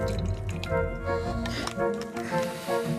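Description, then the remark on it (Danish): Someone drinking the last of a cola, with wet, squishy slurping and dripping liquid sounds running steadily for a few seconds. “du drikker resten af din cola”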